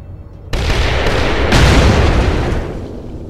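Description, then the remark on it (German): A loud, harsh crunching and tearing sound effect of spheres tearing apart bursts in after a low rumble as an explosion dies away, grinding on in rough noisy surges for a few seconds before slowly easing off. “könnt dann, nachdem ja, die sämtliche Explosion dann eben auch abgeklungen ist, ein Knirschen hören und ein Zerreißen der Sphären.”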